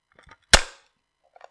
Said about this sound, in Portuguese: Esse é o som do martelo aqui. O mais próximo que encontrei do som do martelo.